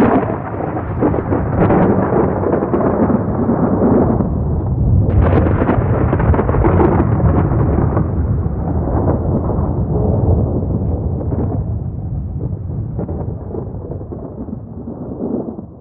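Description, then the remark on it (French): A heavy thunder crash rolls in loud and deep, with a sharp fresh burst midway, then a long rumbling tail that slowly fades. No voices. “Le diable lance sa bomba au sol et disparaît au milieu des éclairs.”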